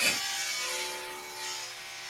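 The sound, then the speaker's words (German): A neighbor's power drill runs steadily, its whining motor tone mixed with a gritty grinding as it bores into material, fairly quiet, with no voices. “Und jetzt wurde er wieder an verbohren, mein Nachbar.”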